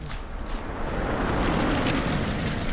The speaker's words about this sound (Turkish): Ah, kaza oldu hemşerim. Ambulans lazım.